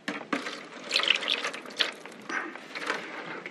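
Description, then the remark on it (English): Water pours and splashes into a shallow tray to bottom-water plants, a steady bubbling trickle with small clinks and drips, no voices over it. “This is called bottom watering, by the way. So lift up,”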